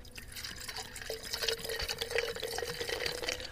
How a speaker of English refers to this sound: Then we add some sparkling water.